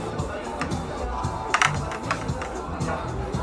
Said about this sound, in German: Oh, man hört sogar. Die Würfel fallen. Äh, ist einmal die 5 und die 1, also 6.